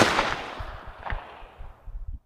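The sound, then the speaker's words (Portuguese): A loud, sharp video game gunshot cracks out and rings away in a long decaying tail, followed by a fainter second pop and a few soft low thuds. No one speaks. “Quer um tiro certeiro, ó?”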